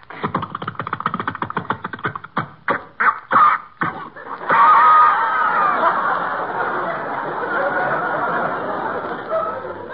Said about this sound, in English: Just wind the rope round the flywheel, thus, uh-huh. then pull. Yeah.